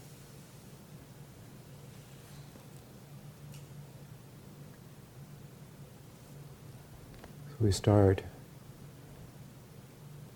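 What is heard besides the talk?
steady rainfall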